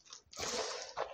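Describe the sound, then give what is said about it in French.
Wet squelching and slapping of dough being kneaded by hand, a short soft squish followed by a sustained sticky working sound and another burst near the end, with no voices. “Alors, vous, avez le droit là en même temps que je parle au bruit de la pâte.”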